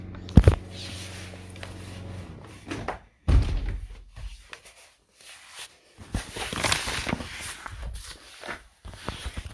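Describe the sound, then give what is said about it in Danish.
A door is shut with a firm thud near the start, followed by another solid knock a few seconds later, with soft footsteps and shuffling and no talking. “Og nu vil jeg lige lukke min dør, for der er kommet en havemaskine på banen.”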